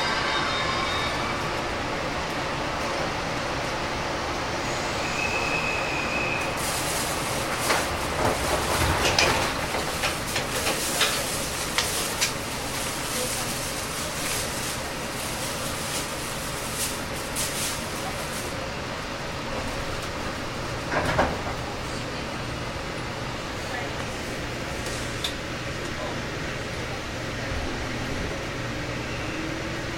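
A JR Kyushu 415 series electric train running on the Nippo Line from Oita to Kozaki, a steady rumble and hum heard from inside the carriage, with brief bursts of louder clatter around the middle and no voices.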